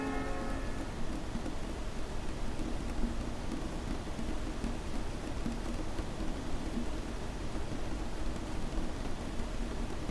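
Steady rain falls throughout, a dense, even hiss of drops with a low rumbling undertone, and a faint tonal hum fades out in the first second. No voices are heard.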